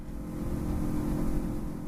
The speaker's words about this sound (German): Ruhig fährt das kleine Boot über den Hampton River, der Little St. Simons Island vom Festland abschneidet und die Insel zu einer der Golden Isles of Georgia macht.